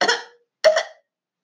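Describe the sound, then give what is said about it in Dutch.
A bath water tap sputters and coughs out two harsh, raspy bursts in quick succession, like the hacking cough of an old man or a heavy smoker, fairly loud, then silence. “Het geluid dat klonk als de hoest van een oude vent, of misschien van een zware roker.”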